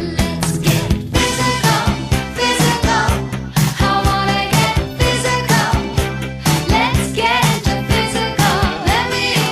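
An upbeat 1980s pop song plays loud and close, driven by a steady thumping beat, bright synths and sung vocals with a dense, full mix throughout.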